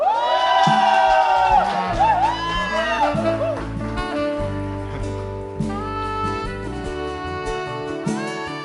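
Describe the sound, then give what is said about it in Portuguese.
A large church audience shouts the Portuguese phrase "Eu e minha casa serviremos ao Senhor" together at full volume, many voices blending into a loud, sustained unison chant that carries on for several seconds. “Eu e minha, bem alto, vamos gritar bem alto.”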